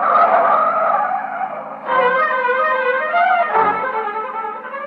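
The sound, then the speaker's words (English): A car roars away with a loud, sustained tire squeal, the screeching pitch shifting as the engine revs hard, intense for the full few seconds with no voices. “You keep saying things you shouldn't, and she lashes out with an answer, and before you know it, you've stormed out of the house and you're taking it out on the car.”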